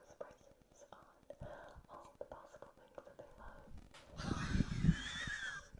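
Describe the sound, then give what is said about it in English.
ASMR wet lip smacking and sticky saliva mouth clicks in a quick, irregular stream with faint whispering underneath, swelling into a louder, noisier wet rustle near the end. “started focusing on the smacking of her lips and the saliva and stuff”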